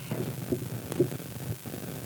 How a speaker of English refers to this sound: Pop, pop, pop, pop, pop, pop. Yeah. Just a bunch of static. I know. I saw that. Don't know where it's coming from. I know. I was trying to make sure it wasn't me.